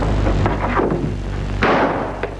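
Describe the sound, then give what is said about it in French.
A single revolver shot rings out on the shore of Lake Montrion, a sharp crack that rolls into a reverberant decay, heard over a steady low rumble with a few fainter thuds around it. “sur les berges du lac de Montrion un coup de feu.”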